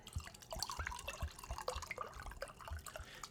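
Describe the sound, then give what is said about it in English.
Wine glugs and splashes into a glass right up close, an uneven series of gurgling pulses and drips lasting a few seconds, with no talking over it. “Pouring more wine. We're gonna get that glug glug glug right by the microphone.”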